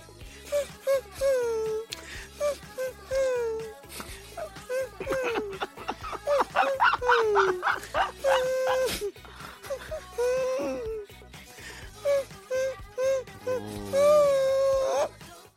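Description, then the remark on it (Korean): A man hums a tune in high, whiny, wavering tones that sound like a whimpering dog, with short broken phrases and bursts of strained vocalizing, fairly loud, as a humming quiz in a broadcast studio. “스튜디오에 강아지 들어왔냐고 사람들이 막고 계신데요. 아닙니다. 사실은 사람입니다.”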